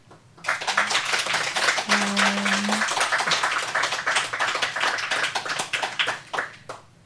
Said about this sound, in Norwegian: Um, og så vil jeg si tusen takk til alle som har vært i panelet. Gi dem en varm applaus, dere som er her.